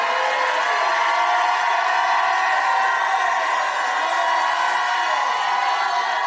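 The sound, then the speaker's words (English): A large audience shouts and cheers continuously, a dense, sustained roar of many voices with whoops mixed in, loud and unbroken throughout. “If you believe that, shout like you never shouted in your life.”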